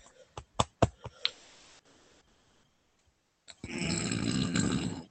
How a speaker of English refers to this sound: Sorry, I have to burp so much. I don't know what the fuck it is.